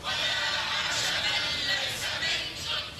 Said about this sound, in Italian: I deputati tunisini li state sentendo che chiusi dentro al Parlamento cantano l'inno nazionale